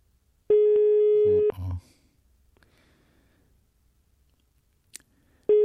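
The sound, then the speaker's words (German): A telephone ringback tone rings out unanswered: one steady one-second tone, a long silent pause of about four seconds, then the next tone starting. A brief murmur follows the first ring. “Jetzt bin ich schuld hier, oder was? Weil der nicht rangeht.”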